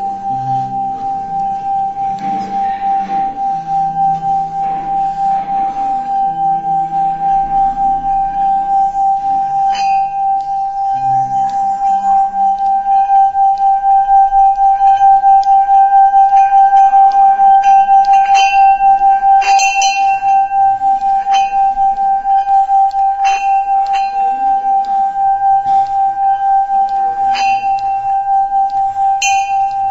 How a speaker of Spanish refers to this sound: esta campana se hace tallando el contorno de, de, la campana y va sonando poco a poquito.